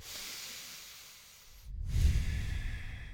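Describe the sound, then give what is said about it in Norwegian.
Someone imitates the calm breathing through the nose they use while running: a long, soft, airy inhale, a brief pause, then a fuller, louder exhale. No talking. “det som er greia, at når jeg nesepuster når jeg løper, så puster jeg mye roligere.”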